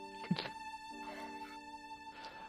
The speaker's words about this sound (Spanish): Eh, cada vez que haces clic en el botón de talento, esta es la animación y el, el sonido que suena. Mirad.